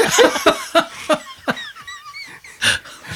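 A fit of harsh coughing, five or six sharp bursts in quick succession, a short pause with a faint high whistle, then one final loud cough.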